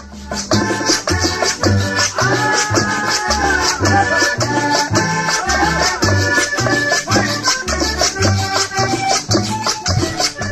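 A lively Colombian Christmas dance song plays loud, with a steady thumping bass beat and bright, busy melodic instruments layered on top; no one talks over it.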